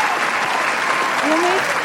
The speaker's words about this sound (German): Das ist, glaube ich, ein Applaus wert. Danke. Ich gebe einen Applaus.